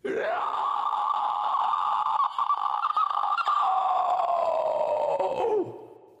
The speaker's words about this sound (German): Ein mehrere Sekunden anhaltender, verzerrter Schrei der ihm durch Mark und Bein ging, hallte von jetzt auf gleich aus dem Fenster von gegenüber herüber und ließ ihm die Nackenhaare aufstellen.